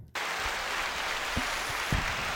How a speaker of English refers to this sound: if I can get the crowd to stop clapping for you, we can get started.